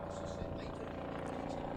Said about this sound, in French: décidément, les hélicoptères, ça n'arrête pas.